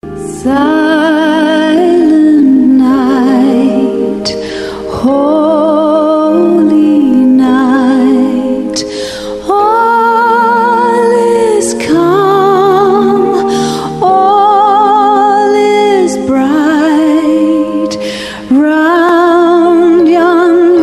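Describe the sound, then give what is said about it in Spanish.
A loud, continuous sung villancico (Christmas carol), a children's song, with a steady beat, its melody moving in short repeated phrases of a couple of seconds each, playing without pause. “Y entonces, con ese pretexto, no solo comemos todo el tiempo, sino ponemos villancicos.”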